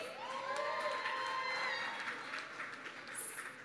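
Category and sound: crowd, audience cheering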